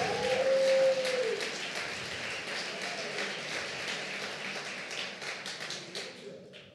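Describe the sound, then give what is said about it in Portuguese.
An audience applauds for Jesus in a dense, steady wash of clapping that lasts several seconds, with a brief held tone at the start and the clapping thinning out toward the end. “Dá um aplauso aí para Jesus.”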